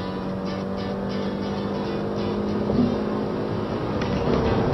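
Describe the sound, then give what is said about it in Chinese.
A small-displacement car engine pushed to high revs, a steady buzzing drone with a strong hum and rushing noise, swelling slightly louder toward the end, with no one speaking. “嗯，这台发动机在逼高转速情况下”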